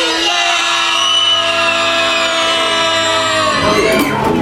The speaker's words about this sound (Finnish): Hei, jos mä lasken kolme, niin kaikki huutaa niin kovaa kuin ääntä lähtee.